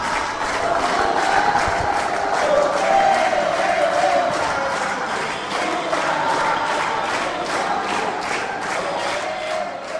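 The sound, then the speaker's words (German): A large crowd at the World Social Forum in a conference centre on the coast of Dakar, Senegal, many of them people from Brazil, applauds and cheers Lula's speech continuously, a dense wash of clapping and raised voices holding steady and loud for the whole stretch without pause. “Natürlich war es die Rede von Lula, die am meisten interessierte und er erhielt am meisten Applaus.”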